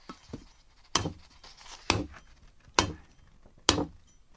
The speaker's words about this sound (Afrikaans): Ja, maar ons moet dit eers uit die dop uithaal, sê mamma en sy kap die dop met 'n klip af.